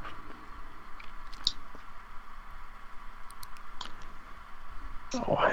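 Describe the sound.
A few scattered, sharp computer mouse clicks ticking options in a settings form, irregularly spaced, over a steady low electronic hum, with a brief murmur of voice near the end.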